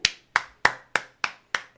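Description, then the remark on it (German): Six crisp hand claps in a steady, even rhythm, fairly loud, like one person clapping alone with no voices. “meine Damen und Herren. Applaus.”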